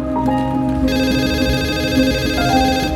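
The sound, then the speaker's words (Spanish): A telephone in a hangar rings steadily, its bright electronic tone holding sustained pitches over a dense, busy background hum, loud, with no talking. “El teléfono del hangar suena.”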